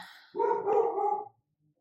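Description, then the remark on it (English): A dog named Sid lets out one loud, drawn-out bark at the mailman arriving, lasting about a second, preceded by faint high-pitched noise and followed by quiet. “Okay, Sid was um, warning us that the mailman was here, and we're safe, and we thank him for his service.”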